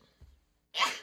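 sneeze

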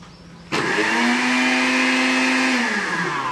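kitchen blender running

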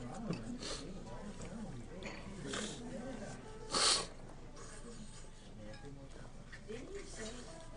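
sniffing

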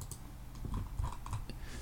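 computer clicking

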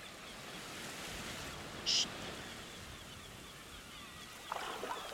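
sea waves

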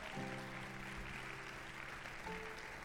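audience applauding

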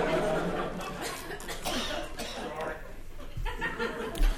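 audience member coughing

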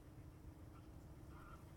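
geese calling

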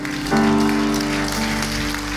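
audience applause

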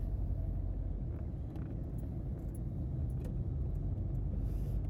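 car interior road noise

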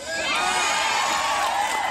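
crowd cheering

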